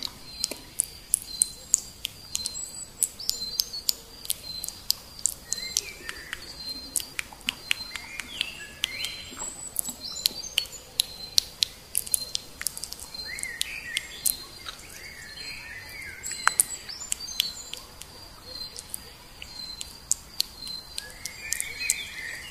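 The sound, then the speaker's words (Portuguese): Birds chirp and call in a forest, with quick repeated twitters and short clicking notes over a steady high insect-like drone. The calls come from several directions. No one speaks. “ouça o som dos pássaros.”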